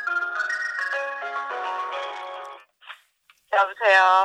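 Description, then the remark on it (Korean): A phone rings through a speakerphone with a steady electronic tone for a few seconds as a call is placed. It falls silent, then a voice answers loudly. “어, 전화 연결까지. 제가 연결을 해보겠습니다. 스피커폰으로 해볼게요.”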